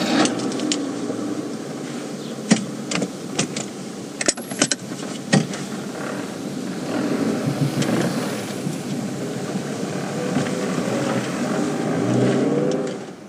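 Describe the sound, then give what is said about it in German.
A few sharp clicks and clunks, then a car engine pulls away and steadily builds, rumbling before easing off as the car brakes at a bicycle street toward the end. “Warum bremst du denn hier an der Fahrradstraße?”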